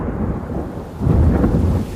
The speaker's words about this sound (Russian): Для этого нужно посчитать, сколько секунд прошло между вспышкой молнии и раскатом грома.